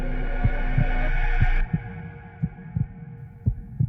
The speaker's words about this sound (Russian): Мне ли не знать этого звука? То билось сердце старика. Его удары распалили мою ярость, подобно тому, как барабанный бой будет отвагу в душе солдата.